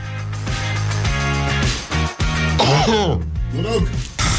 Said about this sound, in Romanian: Numai puțin să strănut.